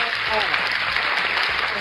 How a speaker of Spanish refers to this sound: Un aplauso, una ovación para,